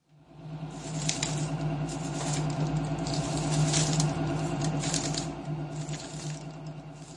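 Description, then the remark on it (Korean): A paper shredder runs steadily for several seconds, its motor humming loudly while the pages of a report, including an original handed over by the president, crackle and rustle through the blades in uneven bursts. “박수석은 대통령 집무실을 나오는 즉시 대통령이 건넨 원본을 포함한 보고서 세부를 몽땅 종이 파쇄기에 넣어버렸다.”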